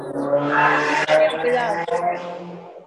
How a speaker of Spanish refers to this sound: No es un carro, una moto, ¿qué es eso? vecinos.